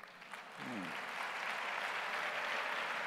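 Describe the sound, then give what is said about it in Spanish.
A church audience, called by the preacher to applaud the Lord, bursts into sustained applause, a dense wash of many hands clapping that swells within the first second and continues steadily, with a brief voice heard just as it begins. “Dame un aplauso al Señor.”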